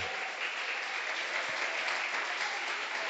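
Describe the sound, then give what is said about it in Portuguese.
A church audience applauds the Lord, a dense wash of many hands clapping at once that holds an even level for about three seconds without breaking. “Você pode aplaudir a esse pastor maravilhoso?”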